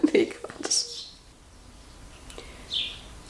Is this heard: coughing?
no